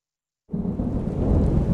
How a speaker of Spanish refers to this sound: Lluvia. Agua en estado líquido condensada del vapor de la atmósfera y precipitada en forma de millones de pequeñas gotas. La sientes en tu piel y la escuchas golpeando el suelo de forma continua, una a una.